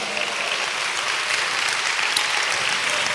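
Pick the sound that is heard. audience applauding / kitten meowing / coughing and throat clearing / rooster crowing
audience applauding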